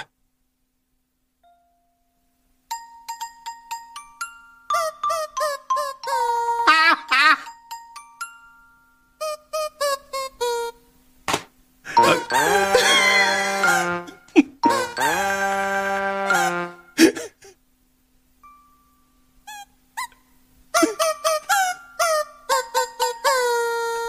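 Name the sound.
video game soundtrack music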